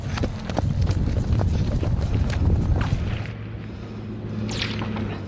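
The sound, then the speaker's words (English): Sharp, irregular snaps of sniper bullets crack past overhead just outside Major Salam's headquarters, several in a few seconds, over a dense clatter of hurried movement and running footsteps as a news team runs for cover, with no talking. “You can hear the snap of the bullets.”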